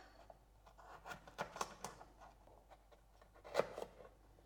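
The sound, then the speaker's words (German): A knife cutting carrots into cubes on a board: soft, irregular taps and short scraping strokes, fairly quiet, with one sharper chop near the end and no talking. “Aber ich werde jetzt die letzte Karotten werde jetzt gleich schneiden.”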